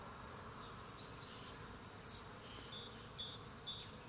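A steady drone of bees buzzing fills the scene without pause, while a few bright bird chirps sound faintly in an outdoor garden.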